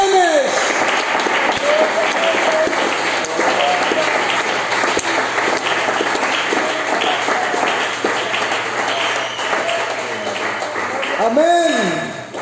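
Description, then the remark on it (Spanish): A church audience claps to the Lord in a morning service, steadily and loudly for several seconds, a dense wash of applause, while a voice calls out over it and rises again near the end. “Si usted siente la paz del Señor en su corazón, denle un aplauso a Él en esta mañana”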